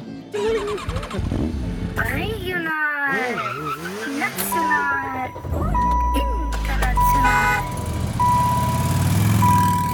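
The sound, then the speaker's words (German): A produced radio jingle packed with engine sound effects: revving motors, squealing tire skids and rising whooshes, with a voice speaking over it and a steady beeping tone toward the end. “Und hier der letzte Jingle, den wir noch haben.”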